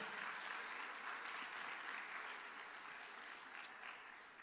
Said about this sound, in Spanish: Si usted lo cree, le da palmas al Señor. Fuerte, déselo fuerte.